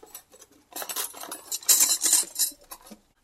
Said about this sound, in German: Schon an der Wohnungstür hörte er das ungewohnte Geräusch von schepperndem und klapperndem Geschirr aus der Küche.